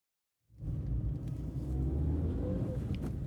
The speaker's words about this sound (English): I was driving a car share Hyundai down Collins Street when I received a call from Fraser's office.